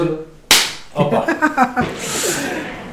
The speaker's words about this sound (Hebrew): כרגע עושים כיף, לא יודע אם תשמעו את זה בכלל, תשמעו את זה.